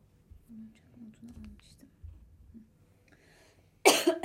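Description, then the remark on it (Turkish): Soft, low murmuring voices fill most of the moment, then a single sudden, loud cough bursts out right at the end, from a person whose cough has lingered since being ill the previous week. “Hala öksürüğüm geçmedi.”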